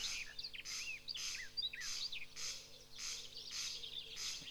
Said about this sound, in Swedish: och vi ska höra på först tre, två stycken åkermarksfåglar som vi kunde höra i Öviks kommun i våras. Vi börjar med konknarren som onomatopeiskt heter krex, krex på latin.